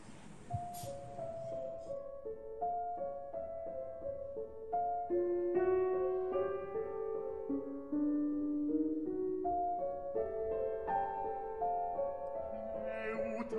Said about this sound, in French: …, en ce qui suit, bah, c'est une mélodie de Debussy extraite des Fêtes galantes.